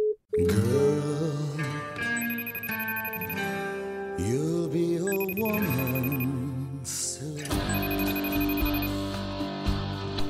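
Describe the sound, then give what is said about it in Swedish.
An outgoing phone call rings out as a bright, melodic electronic tone, repeating in steady phrases every few seconds. It is loud and plays on its own without anyone talking over it. “Vänta, jag ringer upp dig.”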